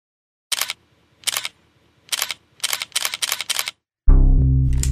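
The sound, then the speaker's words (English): A camera shutter snaps about seven times in quick, uneven bursts, crisp, as a woman is photographed from inside a Nissan Stanza in a sunny mall parking lot, before a loud, deep sustained tone swells in at the end. “The shutters snapped, capturing the woman's red hair as it bounced with sunlight.”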